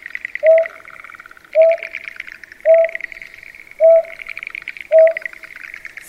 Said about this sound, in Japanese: 今お聞きいただいているのもオスが抱卵している巣の隣の田んぼで鳴いていたメスの声です夜鳴くことの多い玉しぎですがこの日は雨が降っていたからか夕方まだ明るいうちから鳴いていました